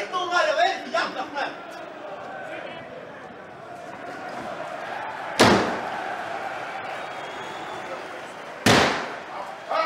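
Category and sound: household object, door being slammed shut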